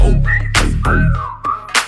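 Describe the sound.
A short, bright whistled tune glides up and down over a deep, thumping beat, with sharp percussive hits punctuating it. No one is speaking.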